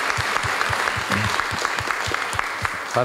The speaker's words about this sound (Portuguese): Dá uma salva de palmas aí, Senhor, pela tua glória.